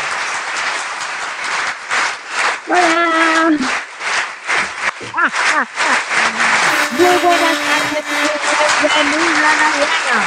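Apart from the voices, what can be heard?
audience applause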